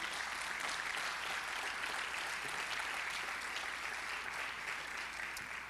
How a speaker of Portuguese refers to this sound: Você podia dar um aplauso aí, assim eu tomo uma aguinha aqui.